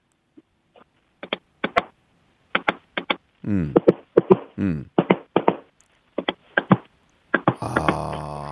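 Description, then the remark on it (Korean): A voice imitates a train entering and then exiting a tunnel: rhythmic clacking chuffs swell into a muffled, droning whoosh inside the tunnel, then return to the steady clatter and end in a hissy rush. “예, 기차 터널 들어갔다 나오는 아, 소리입니다.”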